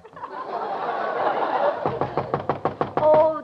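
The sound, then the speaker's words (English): A quick, steady run of about eight loud knocks on a door follows a stretch of laughter and murmuring. “There's someone at the, at the door.”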